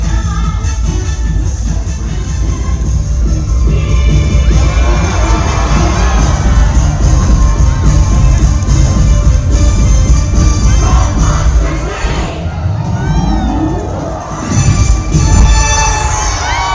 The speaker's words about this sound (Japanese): 花火が花火が上がりました